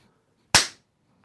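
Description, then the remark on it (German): A single sharp hand clap imitating the sound of slapping dough, a loud, crisp smack that decays quickly into silence, standing alone with nothing else around it. “In die Hände klatschen.”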